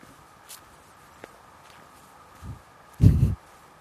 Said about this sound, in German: Blätter, über die ich laufe.